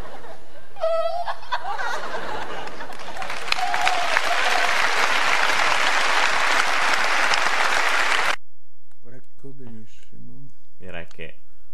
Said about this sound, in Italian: Benissimo. L'applauso qua era d'obbligo.